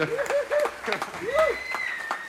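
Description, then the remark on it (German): A few people clap live in an uneven patter of sharp, moderately loud claps, while voices and laughter carry on over the applause. “Also ich würde sagen, wir klatschen auch noch mal live hier.”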